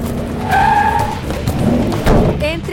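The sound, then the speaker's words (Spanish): A van skids to a halt with a sharp, high-pitched tire screech rising and fading, followed by a dull thump, all loud with voices underneath. “¿De dónde salió esa furgoneta?”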